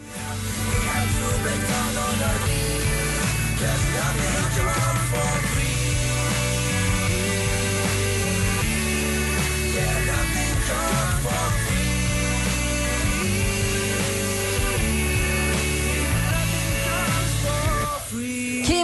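A pop song plays continuously on the radio station Mix Megapol at a steady, fairly loud level, with a full band sound, a prominent bassline and layered melodic parts, and no talking over it.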